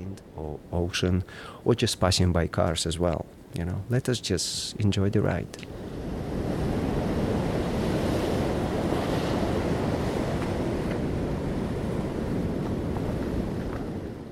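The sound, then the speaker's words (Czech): A person talks briefly, then a steady, full roar of ocean surf and gusting wind takes over, loud and continuous, washing on without pause until the end. “Může to být setkání s někým, smítko letící kolem nebo zvuk větru a oceánu.”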